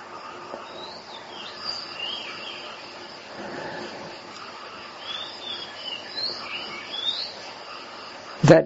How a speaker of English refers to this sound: The mind will still automatically recognize the chirping of the birds, the sound of the water in the river, and so forth.